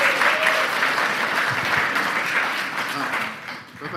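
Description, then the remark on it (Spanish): A church audience applauds for the Lord steadily, a dense wash of clapping that holds loud for several seconds before thinning slightly at the end, with faint voices mixed in. “Denle un aplauso al Señor, aleluya.”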